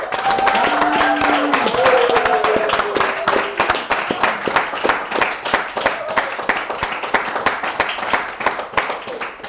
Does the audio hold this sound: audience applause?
yes